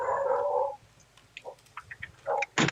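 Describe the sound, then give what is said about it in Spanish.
Dogs barking: a drawn-out, whining bark opens, then scattered faint yips and a couple of sharp, loud barks near the end. No one speaks. “faltaban los perros en este episodio también.”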